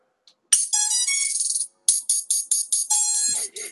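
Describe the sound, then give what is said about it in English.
A cheap electronic buzzer that came with a drone blares a harsh, rattly buzz as it is powered on: one long burst, then a quick series of short choppy beeps and a final longer drone. No one speaks. “I've got the most hilarious sounding buzzer.”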